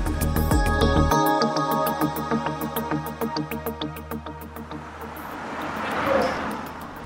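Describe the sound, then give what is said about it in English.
Cyclist Demi Vollering's racing bicycle whirs past on the road during her course reconnaissance ride, with a rapid ticking that slows as it goes by over a low engine-like rumble, then a brief rush of wind toward the end. “Well, that was the sound of Demi Vollering going past on her recon.”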